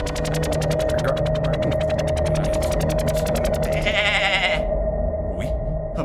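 A long, wavering goat bleat holds steady for several seconds, loud, with a quavering pulsed texture and a brief higher rasp near the end. No talking.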